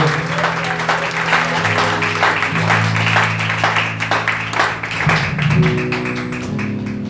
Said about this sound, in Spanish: Denle un aplauso a Cristo Jesús, por favor.